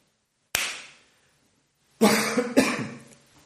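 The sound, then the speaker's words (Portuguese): A single sharp hand clap rings out and fades, then after a pause someone gives two harsh, rough coughs in quick succession before starting to record, with no talking. “A tosse veio depois, porra.”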